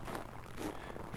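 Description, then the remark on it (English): Footsteps crunch on packed snow at a steady walking pace while hiking along a trail in Anchorage, Alaska, in the winter season, each step a short, gritty burst, with no voices. “It was still the winter season, and the snow that was packed onto the ground amplified my footsteps.”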